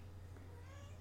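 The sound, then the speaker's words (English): A single soft meow from a female cat, made in reply, drawn out and fairly quiet, rising briefly over a steady low hum with no one speaking. “See, she admitted to it. She says, "Yes, I do. I do do that stuff."”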